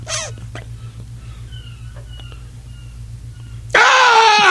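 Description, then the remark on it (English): Two seagulls fighting right outside a studio: harsh, screeching gull cries burst out loudly at the start and again near the end, with a quieter stretch of faint calls and a low steady hum in between. “So the reason we just stopped, there were the sound of two seagulls fighting right outside the studio.”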